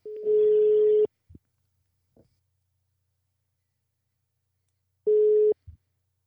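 A phone line's ringback tone: a steady, clear electronic tone lasting about a second, then a long silent gap before a second tone starts and is cut short. No one speaks.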